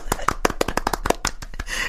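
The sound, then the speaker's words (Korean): A quick burst of applause given as praise: a dozen or so sharp, crisp claps in a rapid, fairly steady rhythm, fading into a soft rustling wash at the end. No one speaks. “칭찬하는 의미에서 박수를.”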